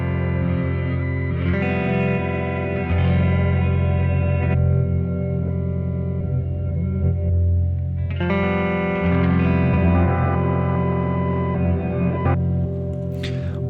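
Guitar processed through a modular effects system, from a 2016 release, droning in dense, sustained harmonic layers with a distorted, echoing texture. The tone swells and shifts in a few steady blocks, with no talking.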